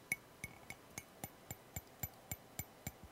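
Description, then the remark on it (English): A metal "Gnosis special frame shift plate" with a golden, glittery finish is tapped about eleven times at a steady, quick rhythm. Each strike gives a bright ringing tone with a short shimmering decay. “This is the protective bagging, and if you want to hear this gorgeous tones.”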